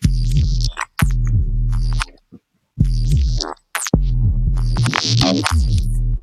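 A gritty neuro synth bass, one bass tone in two layers, plays in loud, choppy phrases with short gaps: a heavy low growl topped by a hissy, high-passed, foley-like noisy top end. No voices.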